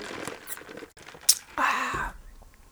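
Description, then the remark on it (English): Someone sips a Dr Pepper soda: soft wet mouth clicks and a quick smack, then a steady half-second slurp, ending in a low gulp. No talking. “I think we need to start with taking a little sippy sip of this Dr.”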